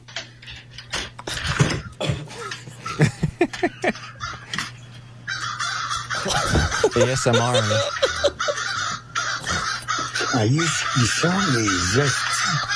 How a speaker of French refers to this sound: donc, il a eu des problèmes avec des corneilles.